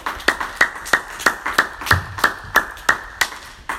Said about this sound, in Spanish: Gloria a Dios. Vamos a darle un fuerte aplauso al Señor Jesús una vez más.